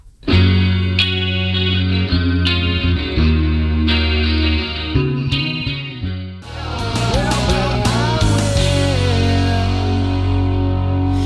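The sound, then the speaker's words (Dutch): A pop rock song plays with distorted electric guitars, steady bass and drums driving a mid-tempo beat, loud and full throughout with a brief dip before the band crashes back in. “het heeft een veertiende positie gehad in de tipraad, dus niet echt door doorgebroken, dit nummer.”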